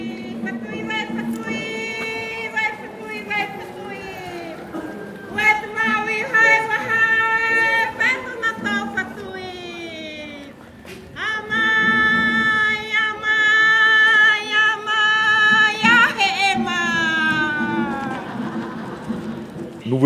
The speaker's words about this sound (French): à ce qu'on appelle ici localement le hahi. Le hahi, le mavé, euh, c'est un cri de bienvenue pour annoncer donc euh, aux on va dire aux étrangers, euh, ce qu'on appelle localement le manihi.